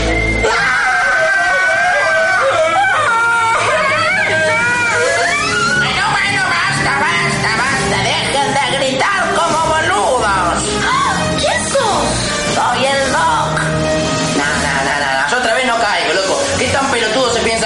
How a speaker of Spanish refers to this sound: Enseguecidos por la brillante luz y confundidos por el desconcertante momento, tan solo atinan a gritar como boludos.